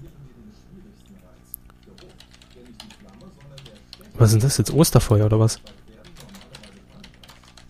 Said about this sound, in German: tippt. Ich glaube, man hört es ziemlich gut. Auch für euch.